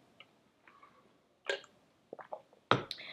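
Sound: drinking water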